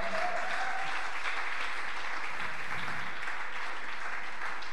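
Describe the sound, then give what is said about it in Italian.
A crowd claps steadily for the newlyweds one evening, a dense, continuous wash of applause that holds at an even level for the full few seconds with no voices rising above it. “Anzi, vogliamo fare un applauso ai freschi sposi questa sera,”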